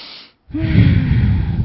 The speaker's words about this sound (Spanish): Sí, eh, va a ser molestoso porque se los voy a hacer gráficamente, escuchan ese sonido, respiren profundamente y exhalen, pero eso es como, como usa una gran bocanada de oxígeno y mmm, sale todo ese oxígeno.